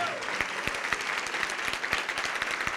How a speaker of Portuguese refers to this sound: Vem aqui para frente, vamos aplaudir mais ao nome de Jesus.